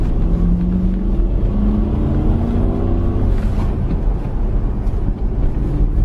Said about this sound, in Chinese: 咱们试试这个车加速啊！来来来，准备好，一脚油门，Go！哇！